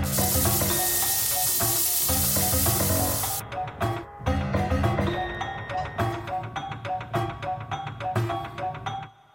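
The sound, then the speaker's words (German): Simulated cochlear-implant hearing, where a microphone behind the ear picks up sound and a speech processor turns it into digital signals: a harsh, sizzling hiss gives way to loud, distorted clattering and metallic ticks, like a wall clock ticking, in an uneven rhythm, every everyday noise amplified, with no talking. “Jedes Geräusch wird durch das Implantat verstärkt, auch das Ticken einer Uhr an der Wand.”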